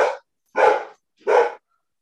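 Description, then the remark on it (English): A dog named Watson barks in the distance, three short, sharp barks spaced roughly half a second apart, with nothing else audible between them and no one talking. “Oh, Watson's barking in the distance.”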